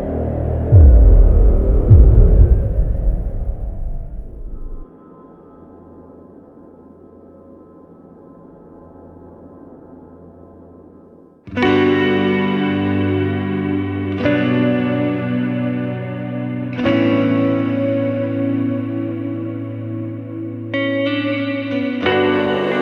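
A heavy metal song intro: a low rumbling drone and quiet hum give way to loud, distorted guitar chords slamming in and ringing out in a few sustained blasts, with no singing yet.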